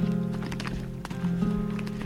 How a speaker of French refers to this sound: Ah oui, alors là, ça c'est les vaches qui attendent toutes en fait. Elles connaissent l'heure de la traite à 6h le matin, on va chercher les, vaches et puis euh, le soir aussi. Quoi. La traite matin et soir, tous les jours, même le dimanche.